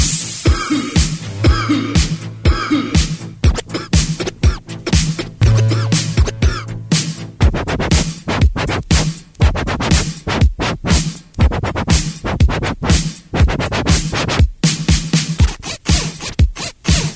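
DJ turntable scratch

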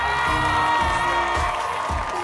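crowd shouting and cheering

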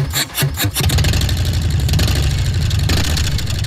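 motorcycle engine revving

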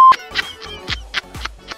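telephone dialing tones

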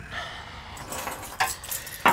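keys jangling

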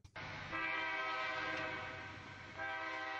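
train passing with horn

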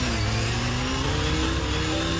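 motorcycle engine revving

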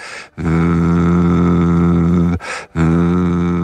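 lip trill vocal warm-up

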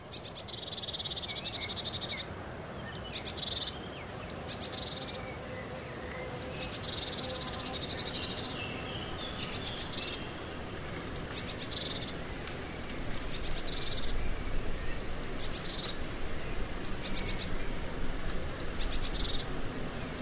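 birds singing

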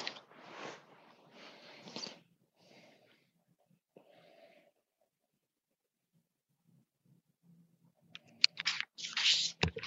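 rummaging through papers

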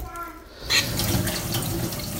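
running tap water

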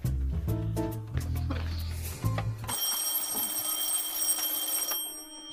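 telephone bell ringing

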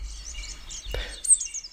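blue tit song

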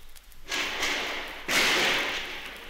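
gunfire

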